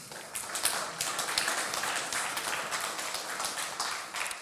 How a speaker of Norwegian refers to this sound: Kan vi gi henne en eh, god applaus?